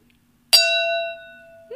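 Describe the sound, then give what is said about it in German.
A small spoon taps a glass once for a toast, giving a bright, clear ring that sustains for about a second and slowly fades, before a voice begins at the very end. “Darf ich für uns anstoßen? Ich habe hier ja. ein Löffelchen.”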